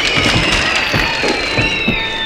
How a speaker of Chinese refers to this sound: 掌声鼓励一下。